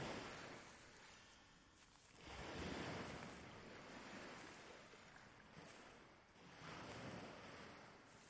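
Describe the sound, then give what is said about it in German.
Soft ocean waves wash onto a wide sandy beach in slow, rolling surges, each swell rising and receding into a steady hiss of surf, with no voices present. “und du läufst langsam auf das Meer zu, bis du am Ufer mit den sanften Wellen ankommst.”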